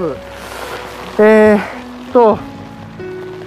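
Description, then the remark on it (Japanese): Steady, dense heavy rain patters and drums on a taut umbrella overhead, a generic parasol-and-rain umbrella bought on Amazon, a continuous wash of hits, while a man talks hesitantly over it. “今日のレイヤリングでこれ音がこれ多分すげえ音が入ってるんだと思うんですけどダバダバダバって一応”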